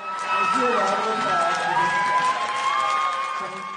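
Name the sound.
theater audience applause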